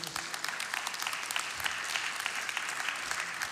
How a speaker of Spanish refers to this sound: Dales aplauso a Dios.